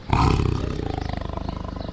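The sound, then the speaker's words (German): A Bengal tiger, an endangered species, lets out a single loud roar that bursts in suddenly and then trails off into a rapid, pulsing low rumble, with no voices present. “Panther zum Beispiel und der sehr vom Aussterben bedrohte bengalische Tiger.”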